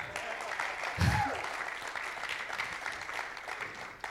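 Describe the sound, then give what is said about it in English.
An audience gives another round of applause for the day's speakers, a dense wash of many hands clapping that holds at an even level throughout, with a brief louder thump and a faint whistle-like tone near the start. “Can I just get another round of applause for those who are speaking today?”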